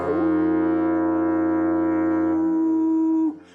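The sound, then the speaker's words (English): A single deep, steady foghorn blast holds at full loudness for about three seconds, then cuts off abruptly, loud with a rich, buzzing tone. “I'm going to sound the foghorn first.”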